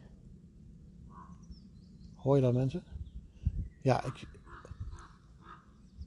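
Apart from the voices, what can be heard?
ravens calling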